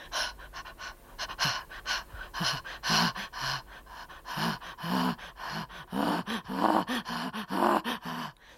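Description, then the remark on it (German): A person imitates a chimpanzee's laughing pant: rapid, breathy huffs and gasping voiced grunts in a steady rhythm, moderately loud, lasting several seconds. “that's chimp laughing”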